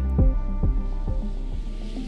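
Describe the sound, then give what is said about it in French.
A Douglas DC-3 propeller cargo plane's piston engine drones loudly, a deep rumbling hum with a steady, rhythmic throb pulsing through it, no voices. It is an American cargo plane of the type used during the Berlin blockade to fly food to the people of West Berlin. “Le bruit que vous venez d'entendre, c'est celui d'un Douglas DC-3, un des avions cargo américains utilisés lors du blocus de Berlin pour acheminer des vivres aux habitants de l'ouest de la capitale allemande, isolés du reste du monde”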